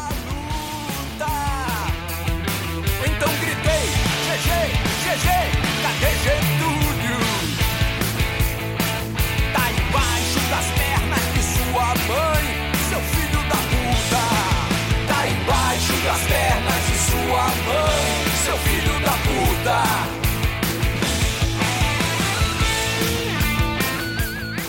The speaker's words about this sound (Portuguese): Musicaço, pedrada e um refrão, cara, que vai grudar no show, porque todo mundo vai querer xingar junto. Escutem só.